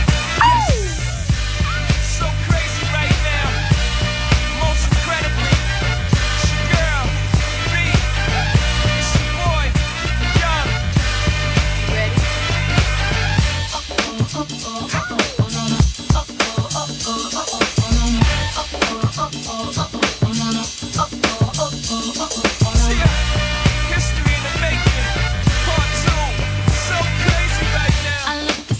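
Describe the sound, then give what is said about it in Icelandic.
A loud pop song with sung vocals over a full band, dropping midway into a sparser, beat-driven section before the full arrangement returns. “Mæti í bæinn hálf tvö, þetta er lægi sem þú væri að heyra.”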